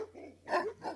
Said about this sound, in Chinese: 秦瑜听到狗叫声，连忙赶回来，捡起石块护着女生们，慢慢的后撤。此时，苏叔惊奇地发现，那只杂种警犬竟然是一直望着沈佳悦大叫，看上去虽然穷凶极恶，其实是在掩饰他的胆怯，眼神里分明充满了害怕和恐慌。